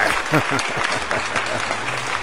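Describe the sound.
A crowd applauding in a dense, steady wash of clapping that stays fairly loud throughout, with a murmur of voices mixed underneath.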